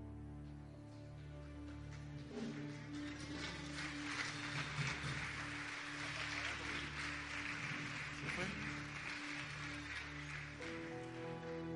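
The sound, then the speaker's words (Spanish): An audience claps steadily for about twelve seconds, a dense, even wash of applause with a low sustained hum underneath and faint voices mixed into the crowd noise. “Y los que están aplaudiendo es porque los que entendieron.”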